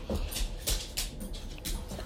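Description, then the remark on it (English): Dogs play at home with a quick run of scuffles and pattering thumps, joined by a few soft whimpering sounds. Nobody speaks. “sorry, guys, doing this at home, and my dogs are in a play.”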